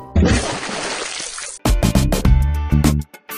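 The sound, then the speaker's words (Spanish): Vigorous splashing and churning water as a turtle paddles its legs hard fills the first second and a half, then gives way to a brighter, tonal passage. No one speaks. “Le gritó Tita moviendo sus patas en el agua con fuerza”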